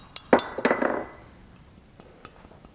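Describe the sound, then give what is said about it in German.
Drinking glasses taken from a kitchen clink together in a quick cluster of bright, ringing taps, followed by a couple of fainter, sparser knocks as the sound dies away; no one speaks. “Die Gläser, hast du die von zu Hause mitgebracht?”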